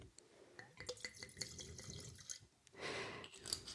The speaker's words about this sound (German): Also er ist in Dettelbach gewachsen. Es ist ein 2018er Jahrgang und er ist trocken ausgebaut. Das heißt, er hat nicht so viel Restsüße, ist also eher herb im Geschmack. So, jetzt mache ich mal den Boxbeutel auf und schenke mir ein Schlückchen ein.